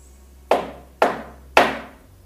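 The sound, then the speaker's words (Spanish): Three firm knocks on a wooden door, evenly spaced about half a second apart, each a sharp thud with a short ringing decay, heard alone over a faint low hum. “Estaba Marta estudiando y sonaron tres golpes en la puerta.”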